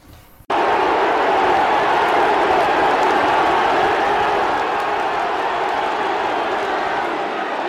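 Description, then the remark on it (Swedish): A large crowd of race spectators roars steadily, a dense wash of cheering and voices that starts abruptly after a brief quiet moment and stays loud throughout, with no commentator. “jag hittade ett klipp eller eh, eh, ett, ett lopp, en loppfilm där ingen referent är med utan man hör enbart publiken.”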